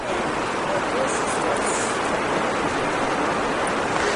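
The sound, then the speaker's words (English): Heavy rain pours down in a dense, unbroken hiss that stays loud and steady throughout, a broad wash of sound with no pauses or distinct drops standing out. “Yeah, this is a lot of rain.”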